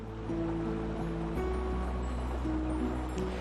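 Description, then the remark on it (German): A small fishing boat's motor drones steadily, its low hum wavering slightly over a constant wash of sea water and wind; no one speaks. It is Cyril's boat heading out to sea from Little Bay Islands, Newfoundland, Canada, as it does every day. “Cyril fährt jeden Tag mit seinem Boot aufs Meer, denn das Meer war sein Leben.”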